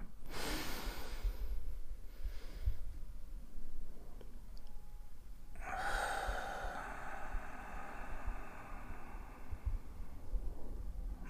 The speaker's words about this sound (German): ziehen wieder Luft in den Bauch und dann in die Brust. Das können wir jetzt gemeinsam machen. Drei tiefe Atemzüge.